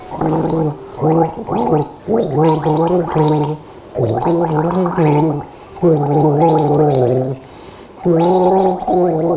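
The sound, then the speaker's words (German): Someone gargles a song melody for listeners to guess, the bubbling voice holding distinct pitched notes in short phrases with brief pauses between them, fairly loud, with no other talking. “Und ich habe jemand gurgeln lassen für die gegurgelten.”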